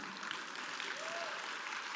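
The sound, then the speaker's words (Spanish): An audience applauds a doctor as he is introduced, in a steady, dense wash of clapping that holds an even level throughout, with a brief faint whistle-like tone rising over it midway. “Ahí está, dele un aplauso, lo quiero muchísimo.”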